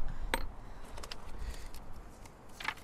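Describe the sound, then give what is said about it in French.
A hammer drives a nail into a deep crack in limestone rock to install a new plot marker: two sharp, ringing strikes about two seconds apart, with a few lighter taps between them, over quiet outdoor background. “Donc on utilise un clou et un marteau. La difficulté c'est de trouver une fissure suffisamment profonde.”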